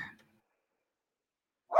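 A dog barks in two short, sharp bursts, one right at the start and another near the end, with a stretch of silence between them.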